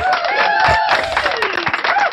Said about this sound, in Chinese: 用热烈掌声欢迎我们的山鬼。